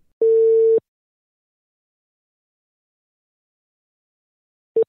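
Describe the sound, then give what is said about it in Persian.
A steady electronic telephone ringback tone sounds once for under a second, then silence follows until a second tone begins at the very end, as a phone call is placed to a truck driver in Hamadan, Iran, and waits to connect. “ایشون خودشون ساکن همدانن و به خاطر همین باشون تلفنی صحبت میکنیم”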